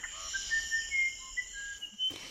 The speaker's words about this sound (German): sondern das ist einfach eine Folge davon, dass die Vögel eben besonders gerne in Oktaven, Quinten und Quarten singen. Da kommt es dann zufällig zu so einer Parallele.